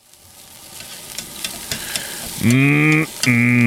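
Sausages sizzle on a barbecue with a steady, hissing crackle and scattered pops, then two loud, buzzing tonal bursts cut in over the sizzle near the end.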